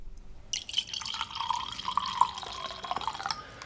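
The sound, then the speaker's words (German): Riesling wine pours steadily into a glass for about three seconds, a bright gurgling trickle with rising pitch as the glass fills, no voices present. “Und wenn man den aufmacht und einen schenkt, klingt das ungefähr so.”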